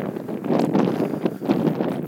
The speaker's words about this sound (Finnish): Nyt tämä tuuli alkaa käydä niin kovaksi, että mä luulen, että tämä kuunteleminen alkaa käydä kestämättömäksi.